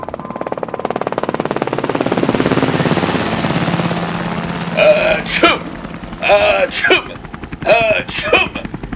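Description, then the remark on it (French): A steady helicopter rotor chopping fills the background, then three loud, rough coughing bursts break through it at intervals as someone coughs inside the helicopter. “Eh bien, je fais comme vous avez dit. Je tousse dans l'hélico.”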